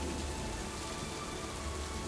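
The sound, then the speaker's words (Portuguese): Steady rain falls without pause, a dense, even hiss of drops spread across the sound with a soft low rumble underneath. No voices are heard. “Novamente, é transformado em uma nuvem muito ampla e faz chover”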